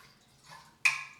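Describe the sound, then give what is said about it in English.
Someone takes a quick swig of water from a bottle: a soft rustle, then a sudden wet slosh that fades away. No one speaks. “I took a swig for the culture.”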